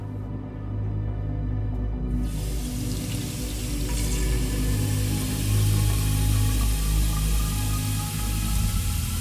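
Tap water runs steadily into an emptied wine bottle, starting after a brief low hum and continuing as a constant rushing pour with a faint rising tone. No one speaks.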